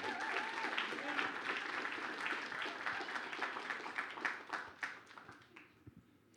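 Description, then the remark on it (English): An audience at a worship gathering gives another round of applause, with dense, steady clapping that carries on for several seconds, then thins out into a few scattered claps as it fades near the end. “How about another round of applause just for the opportunity?”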